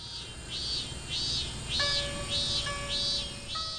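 A high, metallic shrilling of Japanese cicadas pulses in steady, repeated bursts, loud, with a few thin whistling tones layered over the droning background; the shrill resembles a grinding machine.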